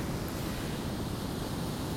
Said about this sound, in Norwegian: Jeg sitter rett og slett på en stokk på stranda, ser på soloppgangen og eh, Ja, kanskje kan du høre bølgene skvulpe i bakgrunnen og de nydelige, deilige tropiske fuglekvitrene.